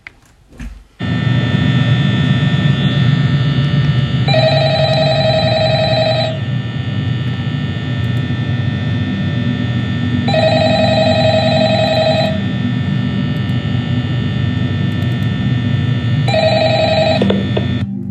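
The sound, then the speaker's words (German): A telephone rings in three bright, electronic bursts, each about two seconds long and spaced roughly six seconds apart, over a steady, loud low hum. No one speaks. “Ich habe mal die Telefonlinie hier übernommen, um mit dir zu reden.”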